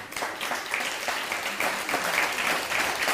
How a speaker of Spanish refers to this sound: Dele un fuerte aplauso.